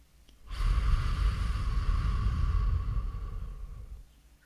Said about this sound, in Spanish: Y mm, vamos a respirar profundo por la nariz, exhalando por la boca. Vamos a hacer eso tres veces.